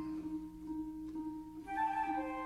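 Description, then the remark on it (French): Sustained instrumental tones with bright, fluttering high notes that mimic birdsong, over a steady low drone; the chirping figures grow livelier and louder toward the end, with no voices. “Ah, c'est pas des oiseaux, c'est. C'est comment dire Des instruments, voilà, euh, qui imitent les oiseaux.”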